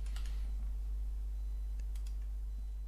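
Quick, light keyboard typing with a handful of scattered key clicks as someone searches Google for the term "Schlüsselparty" (key party), over a steady low electrical hum with no one speaking.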